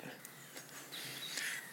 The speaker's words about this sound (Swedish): Nu hör vi hur en eh, rödhake tränger igenom här eh, med en lite melankolisk ramsa, silverpålande. Det är ju inte riktigt rödhakens tid på dygnet det här. Vi står här mitt i solskenet, mitt på dagen.